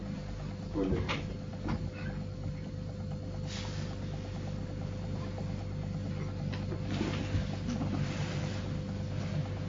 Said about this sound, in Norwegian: Nå kan vi spørre skal jeg åpne døren, begynner det å bli varmt nå. Da åpner vi døren.